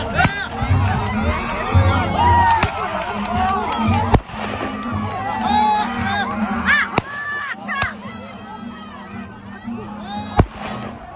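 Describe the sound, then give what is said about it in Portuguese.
Several sharp gunshots, fired into the air by military police to disperse a confrontation at an area occupied by the MST in Jacobina, Bahia, ring out at irregular intervals, some loud, over a noisy crowd of agitated voices and chatter that continues throughout. “Os policiais atiraram para o alto para dispersar a confusão.”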